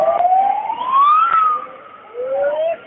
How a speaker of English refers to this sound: when they do the whole alarm on that bullhorn out there in Reno, right?